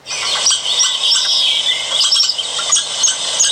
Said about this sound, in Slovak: Aha, ja by som povedala, že to je vták a to je veverička. Áno, to je pre mňa nové poznanie. takže aj tieto zvuky vydávajú zvieratá.